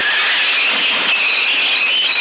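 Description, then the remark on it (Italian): A loud, continuous metallic screech of a subway train's steel wheels grinding against the rails, shrill and sustained for a couple of seconds without letting up, with no voices. “le ruote d'acciaio hanno tutta una serie di problemi che danno molto fastidio a chi vive vicino alle ferrovie”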